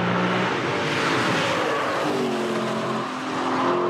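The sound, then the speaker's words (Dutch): A car engine roars loudly as it accelerates hard, its pitch climbing steadily, with a broad hiss of tires scrubbing on the road underneath. No one speaks. “rijdt ook als een zwijn, hè?”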